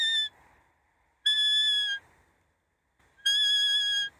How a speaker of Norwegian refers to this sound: Nå hadde ikke jeg med lukkefløyta mi, men her er sånn rådyrkillinglyd. Hører du?